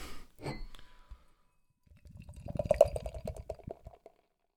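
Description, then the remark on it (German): Beer from a can, a beer sold only in Austria, pours into a glass for about two seconds with steady glugging and fizzing, the gurgle rising in pitch as it fills. A short hissy burst comes first, then a brief pause. “Rein ins Glas.”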